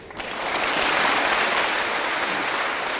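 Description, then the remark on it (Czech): Steady applause for six guests at the end of the show Fokus, held in a public transport terminal, from an audience of students and teachers of two grammar schools in Hradec Králové and Nový Bydžov; a dense wash of many hands clapping that starts abruptly and holds at an even, fairly loud level, with no talking over it. “To byla šestice hostů, kteří se zaslouží potlesk.”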